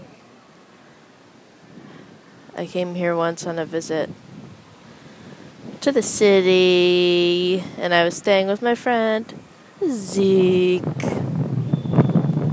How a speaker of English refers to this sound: Apologies for the wind in advance. And in, by in advance, I mean right now. I'm so sorry right now.